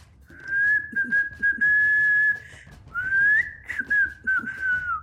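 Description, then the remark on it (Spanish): A nambú (tinamou) call imitated by a person whistling: two long, steady mid-pitched whistles with slight wavering and a rising bend, clear, with no talking. “Y tú, lana café, serás el nambú. Parecido al conejo. Que mantenga vigilados y en orden a todas las aves nocturnas. Para ello podrás silbar”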